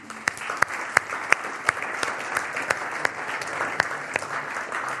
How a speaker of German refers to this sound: Gib mal Applaus da nach hinten.